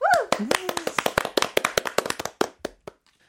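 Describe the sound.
Lively applause on a radio show of many rapid, sharp hand claps after a brief whooping voice at the start, introducing a live performance of a new song, continuing for about two and a half seconds before tapering off into silence.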